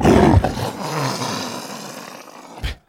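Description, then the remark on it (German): A leopard gives a deep, rasping roar that rolls out over a couple of seconds and fades, followed by a short, low grunt near the end. “Und das Infotier diese Woche ist, und das ist das schönste Infotier der ganzen Welt, es ist der Leopard.”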